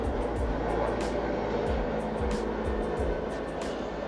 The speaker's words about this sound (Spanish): Eh, está pasando un, helicóptero.